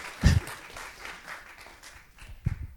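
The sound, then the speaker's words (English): A church audience bursts into applause, a dense rattle of many hands clapping at once, with a couple of louder thumps standing out as the clapping continues steadily. “Let's give one last round of applause”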